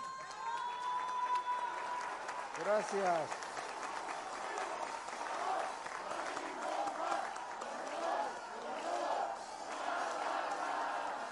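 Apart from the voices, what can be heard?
audience applause and cheering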